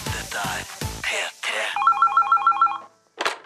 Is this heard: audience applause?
no